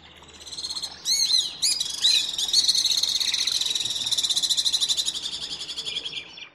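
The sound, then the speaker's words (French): Alpine swift calls: a few sharp, high chirps, then a long rapid trill of one repeated syllable, loud, fading slightly near the end, with no talking. “alors que les martinets à ventre blanc ont des cris plus exotiques à une seule syllabe répétée.”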